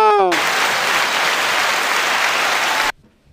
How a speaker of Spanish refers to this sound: ¡Aplauso!